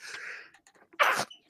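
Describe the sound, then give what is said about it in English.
A single sharp, explosive sneeze bursts out, preceded by a brief breathy inhale and followed by a short faint sound. “Uh, Bless you.”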